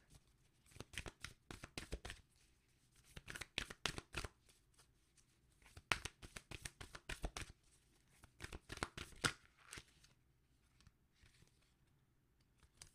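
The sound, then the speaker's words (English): A deck of self care cards is shuffled in several quick riffling bursts of crisp, papery clicks, with short pauses between them, then a card is drawn; no one speaks. “All right, so what is it? Let's get a self care card.”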